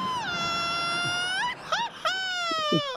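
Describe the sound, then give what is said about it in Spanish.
A voice imitates the whimpering of a dog being beaten: a long, high, steady whine that bends upward, two short yelping squeaks, then another drawn-out whine slowly sliding lower. No speech. “Va a venir la perra municipal, eh, pensando que estamos golpeando al perro.”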